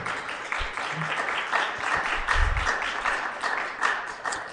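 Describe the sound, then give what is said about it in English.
Sustained applause from the audience at a National Citizens Inquiry hearing after a testimony, a dense wash of many hands clapping at a steady level with slight swells, with no one speaking over it. “I don't know if you can hear, but the, the audience is clapping.”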